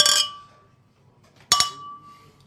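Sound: glasses clinking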